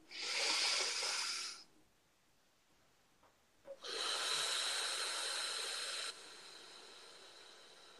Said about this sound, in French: Alors, une respiration.